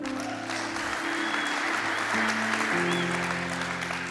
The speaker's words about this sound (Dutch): Hey, laten we de band een applaus geven.